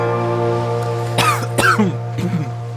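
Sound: cough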